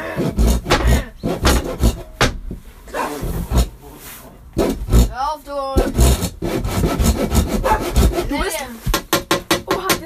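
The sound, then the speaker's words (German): Loud sawing through solid wood, with rapid rhythmic back-and-forth strokes that pause briefly and resume, joined now and then by short vocal sounds. “Alter, ist das festes Holz?”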